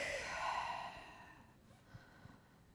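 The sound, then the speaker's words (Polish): A slow, deep breath drawn in through the nose during a calming breathing exercise, airy, swelling for about a second and then fading into quiet, with no talking. “Wdech”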